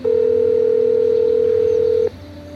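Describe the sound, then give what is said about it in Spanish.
A steady, loud telephone dial tone hums continuously for about two seconds as a call is placed, then cuts off abruptly, leaving faint background noise. No one speaks. “al que si os parece le vamos a dar un toque y vamos a charlar con él.”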